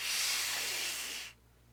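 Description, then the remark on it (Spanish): A single sustained hiss, a voice mimicking a snake, runs steady for over a second before cutting off abruptly into quiet. “Hagan de cuenta una serpiente haciendo. Un siseo.”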